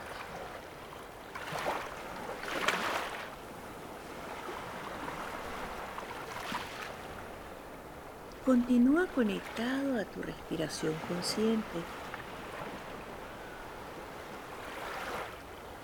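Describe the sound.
Ocean waves roll in and wash out in slow, repeated surges, with a steady background hiss of surf. Partway through, a calm voice speaks briefly over the water.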